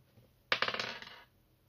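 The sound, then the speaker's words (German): Dice are rolled to pick an 80s comedy film, clattering across a hard surface in a quick burst of sharp, bright rattling clicks that bounce several times and settle within under a second, with no one speaking. “jetzt würfel ich für dich den 80er Komödienfilm.”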